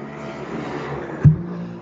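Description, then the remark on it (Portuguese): A motorcycle engine roars in a steady, loud drone, surging briefly near the end before dropping away as it passes. “Se você for para a fila do posto, olha a moto.”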